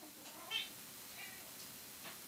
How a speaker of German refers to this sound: Es miaut immer fort. Das ist Live-Podcasting. Wenn die Tiere eine, eine Stimme im, äh, im Mikrofon haben, dann geht das. Wunderbar. So. so. Gut, jetzt ist eine Katze mit im Raum, das dürfte aber hoffentlich nicht weiter stören.